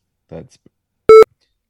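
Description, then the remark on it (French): A short burst of speech is followed by a single loud, steady electronic beep lasting about a fifth of a second, sharp-edged, then silence. The beep was caused by a small technical problem. “Bon, on s'excuse euh, aux auditeurs, vous venez d'entendre un bip.”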